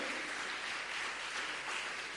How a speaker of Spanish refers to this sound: Ponte de pie. Aleluya. Da fuerte ese aplauso a Dios. Bendito sea su nombre.